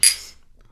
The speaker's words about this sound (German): Stößchen.